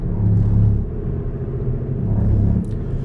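A car's engine and road rumble hold steady and loud for about three seconds, a deep continuous drone with a slight swell, heard from inside the car as it passes another vehicle, with no one talking.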